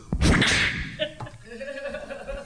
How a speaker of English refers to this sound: He responds by snapping his whip at you.